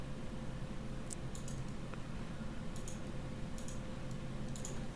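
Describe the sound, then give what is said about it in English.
Soft keyboard typing in a few short, scattered bursts of light clicks, fairly quiet against a steady low background hum, with no one speaking, as a person types in an online chat. “I'm just typing in the chat.”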